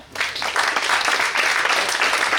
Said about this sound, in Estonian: okei, aitäh sulle, plaksume ka.